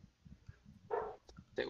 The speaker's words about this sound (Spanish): Pues, chingos los perros.